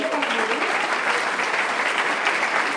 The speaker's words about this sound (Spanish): pido un aplauso para Dios